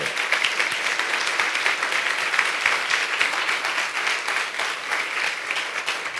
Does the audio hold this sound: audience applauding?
yes